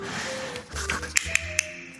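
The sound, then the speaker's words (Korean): Three crisp wooden castanet clicks snap out in quick succession as the shell-shaped castanets are snapped shut by hand, bright against a quiet background with a faint low hum. “이거 이제 제가 이렇게 손으로 탁 다물어주면 이렇게 소리가 납니다.”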